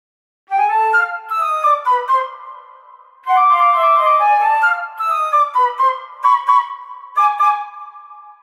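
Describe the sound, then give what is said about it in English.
Several flutes play alone, fairly loud, in shrill sliding and held tones that mimic whistling teapots for animated teapot characters in a musical composition, in two phrases split by a brief pause. “Here are the flutes from my composition, just on their own.”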